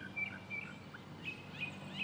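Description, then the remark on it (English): Birds chirping outdoors in a city in short, high, thin calls repeating every half second or so, fairly faint over a steady low hum of background noise. “birds and planes and cars that can then be heard as music”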